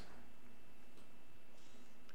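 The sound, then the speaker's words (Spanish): A clock ticks steadily in a quiet, low-level countdown, each soft click evenly spaced about half a second apart over a faint background hum. “Tic tac, tic tac, tic tac.”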